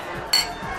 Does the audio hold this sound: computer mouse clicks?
no